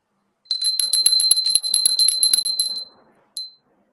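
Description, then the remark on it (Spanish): A small high-pitched meditation bell, rung as the cue to close the eyes, rings in a quick, continuous tinkling flurry for a couple of seconds, fades, then sounds once more briefly, clear with no talking. “Cerramos los ojos al sonido de la campanilla, hacemos esto entonces y bueno, y les voy a ir guiando por, con mi voz qué va a pasar dentro.”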